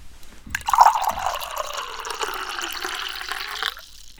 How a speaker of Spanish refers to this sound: que es un buen momento para tomar un poquito de agua, ¿crees?